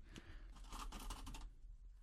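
Quiet handling noises: a pair of scissors picked up and shifted about, with a cluster of light clicks and rustling scrapes for about a second and a half, then near silence.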